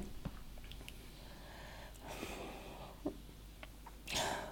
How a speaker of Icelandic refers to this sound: núna er ég að gráta